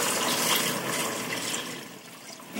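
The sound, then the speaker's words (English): About 32 ounces of water pours steadily into a pressure cooker pot to dissolve beef bouillon crystals, a continuous hissing, splashing rush that holds fairly even for a couple of seconds before easing slightly near the end. Moderately loud, with no talking. “I'm going to pour the water in right now.”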